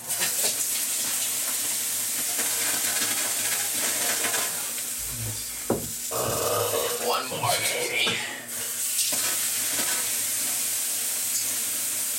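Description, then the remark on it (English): A steady, loud hiss of steam fills the space, with a burst of sizzling around the middle as water hits hot stones, then settling back into a constant rushing hiss. “right, folks, what you're hearing is steam.”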